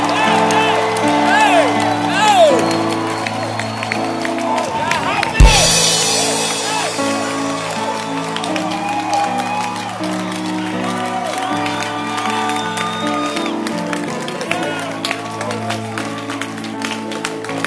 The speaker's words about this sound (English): I see someone clapping and dancing and jumping. Stand up and clap your hands.